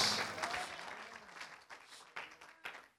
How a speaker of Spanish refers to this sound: Dele un aplauso al Señor, porque el siguiente día te levantas con nuevas fuerzas.